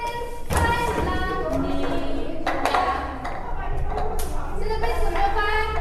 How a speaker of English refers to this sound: In this game, the elderly need to accomplish their tasks in three steps clap their hands, knock on the table, and turn over the cups in front of them.